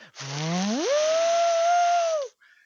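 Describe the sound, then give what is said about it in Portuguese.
A voice mimics a PlayStation disc drive motor spinning up with a Crazy Frog racing game CD inside, a loud whine that sweeps upward in pitch and then holds steady for about two seconds before cutting off. “Que eu colocava ele no meu PlayStation, os, cara, os... fazia um barulho inacreditavelmente alto, cara.”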